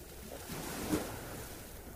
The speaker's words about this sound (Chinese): 接下来，你听到了另一个大自然的声音，一个你最舒服、最喜欢的声音。海浪一阵一阵的拍打在沙滩上